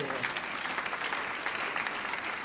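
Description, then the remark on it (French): An audience applauds the king loudly, a dense wash of many hands clapping at once, fairly loud and sustained throughout with no pauses and no distinct voices standing out. “Et que tous ceux qui le croient disent Amen et applaudissent bien fort le roi.”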